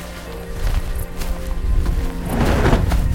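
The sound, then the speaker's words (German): Quick, heavy footsteps thud as a paraglider pilot wearing his wing breaks into a run to take off, the pace picking up while a rushing, rustling noise builds toward the end. “Mit bestimmten Schritten läuft Kari los”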